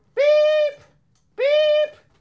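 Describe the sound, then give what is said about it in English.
Two loud, steady bonging tones, each lasting about half a second with a brief pause between, ringing out alone with a bright, buzzy harmonic quality and an abrupt stop. “All right, you can stop the bonging noise.”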